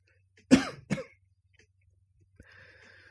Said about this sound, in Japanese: あ、ちょっと咳込みます。